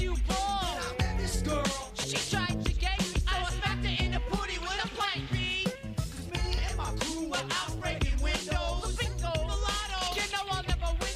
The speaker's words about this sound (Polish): Tym, utwor, tym samplem, który oni wykorzystują jest głównie ten basik, który słyszycie w tle, taki turu, tu tu tu tu tu